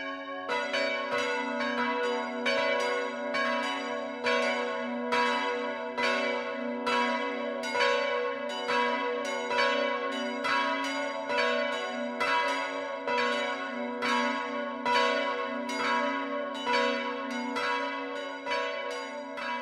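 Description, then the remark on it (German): Church bells of the Catholic parish church St. Jakobus in Binsbach, part of the town of Arnstein, a village between Würzburg and Schweinfurt, ring the 12 o'clock midday peal, several bells overlapping in a steady, dense stream of strikes with long humming overtones, loud and continuous with no voices. “Das Mittagsläuten kommt heute von der katholischen Pfarrkirche St. Jakobus in Binsbach.”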